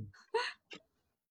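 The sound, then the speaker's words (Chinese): A gosling on a countryside farm gives a couple of bright, high-pitched peeping calls, a longer chirp followed by a short one, heard on their own against quiet background. “呃，这是小鹅。”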